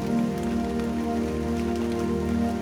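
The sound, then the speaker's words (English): Steady rain patters down continuously on a surface, a dense hiss of drops over a sustained low tonal drone. No one speaks. “Visualize the rain falling”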